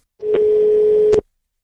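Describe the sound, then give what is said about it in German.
A single steady FaceTime call ringing tone, about a second long, plays loud and clear through a MacBook connected to an iPhone, with faint clicks where it starts and stops, and no one talking. “Das heißt, ich kann vom Computer aus, das Telefon benutzen, um zu telefonieren. Und das mache ich jetzt mal im ersten Schritt.”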